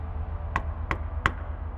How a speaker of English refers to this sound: It happened about seven or eight times, and once again, I hear footsteps walk across the porch, get to the door, and then suddenly, three sharp knocks.